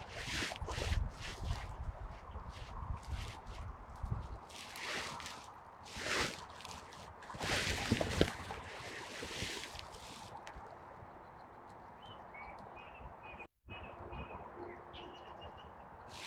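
light-vented bulbul calling

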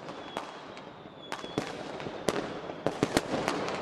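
fireworks exploding

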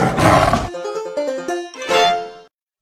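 tiger roar

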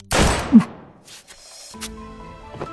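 gunshot

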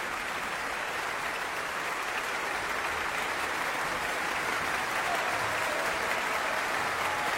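concert hall audience applause

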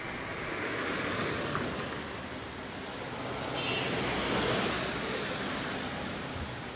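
rain falling

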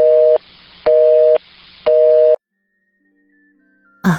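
telephone busy tone

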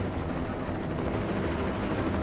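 helicopter taking off

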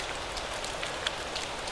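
falling rain

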